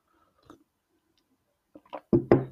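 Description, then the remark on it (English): A faint click, a short pause, then wet sips and gulps of a drink from a cup build into a few louder swallowing sounds, heard alone. “Excuse me I have a cup of sip of something.”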